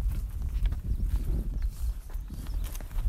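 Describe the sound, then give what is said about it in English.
Horse hooves clip-clop at a steady walking pace, a continuous rhythmic thudding over a low, rumbling outdoor background, with no one speaking. A small Arabian mare is being ridden while herding cows. “I went from filing news stories on deadline to herding cows on horseback.”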